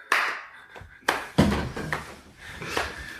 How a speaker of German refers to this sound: Ja, herzlichen Glückwunsch Paderborn zu über 500 Knoten, denke ich, kann man auch mal, bevor jetzt. Genau. Genau, da, da klatschen wir auch einmal.